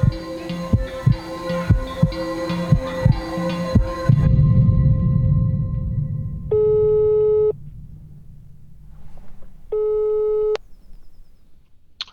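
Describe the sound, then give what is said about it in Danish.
A phone ringback tone sounds twice, each steady electronic tone lasting about a second with a pause between, following rhythmic thumping and a low background hum. “Hvordan passer det, jeg ringer nu?”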